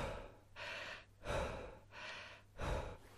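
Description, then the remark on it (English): Fast, forceful holotropic breathing with no pauses, about four loud in-and-out breaths in a steady rhythm, with no talking. “basically holotropic breathing is what you have to do is for an extended period of time, you have to breathe like this.”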